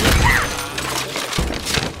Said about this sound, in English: Kicking down the door!